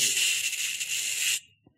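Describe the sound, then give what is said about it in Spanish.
Steady, loud hiss of radio static heard when an FM or AM radio is not tuned to a station, noise arriving as microwaves, a bright rushing noise that holds evenly for over a second, then cuts off abruptly, followed by a faint single click. “cuando no están sintonizando a una emisora. Ese ruido es un ruido que llega en microondas.”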